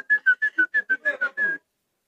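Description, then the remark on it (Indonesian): A quick, rhythmic run of about nine short whistled notes, fairly loud, with the last one drawn out, like a person whistling to imitate a quail's call at night. “burung apa tuh nggak tahu saya malam-malam Bu, burung apa tuh burung puyuh puyuh puyuh gitu”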